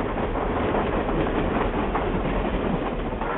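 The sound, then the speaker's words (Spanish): A train rumbles steadily along the rails, a dense, continuous roar with faint rhythmic clatter from the wheels, fairly loud throughout with no voices. “un caballo al trote y un tren al galope.”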